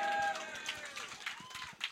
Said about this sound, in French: Merci beaucoup. Hey, euh, Greg Tudetsky, mesdames, messieurs, on applaudit.